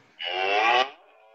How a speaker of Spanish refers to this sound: Allá van las vacas, haciendo idiota, por Dios.